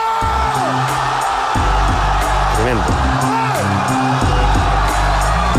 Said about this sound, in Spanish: No sé qué está pasando, está una gente gritando al fondo.